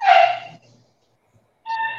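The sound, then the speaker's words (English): A neighbor's dog lets out a sharp, loud bark, falls silent for about a second, then gives a high, drawn-out whimpering whine. No one speaks. “Like that's a human being. that's his dog.”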